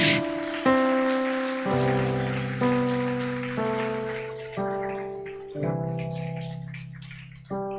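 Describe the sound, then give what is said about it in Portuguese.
A crowd applauds Jesus, clapping steadily over sustained keyboard chords that change roughly every second, the dense patter of hands running throughout and fading slightly toward the end. “Então aplaude Jesus.”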